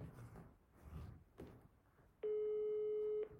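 A single steady electronic ringback tone sounds for about a second after some low rustling and faint background noise, clear and prominent, the buzzy tone of an outgoing phone call ringing, a call placed to someone in Valencia.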